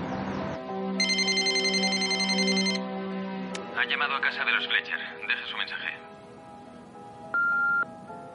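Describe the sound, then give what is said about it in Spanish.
A telephone rings in Mike's house with a bright electronic trill, followed by a burst of warbling ring pulses and a short beep, all over a steady, low humming background. “En casa de Mike suena el teléfono.”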